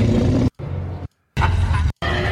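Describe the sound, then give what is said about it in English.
A deep, rumbling T. rex growl sound effect from Jurassic Park, loud, broken into several gritty bursts separated by short silences, with no talking over it. “Okay, that's just a growl.”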